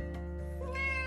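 A single drawn-out cat meow, close and clear, with a tonal, slightly rising cry that swells toward the end. No one speaks over it.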